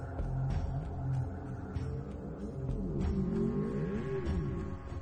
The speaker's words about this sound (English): sort of whale-like noises. Uh, their throats kind of extending like a like a bullfrog um, Frog as they make these.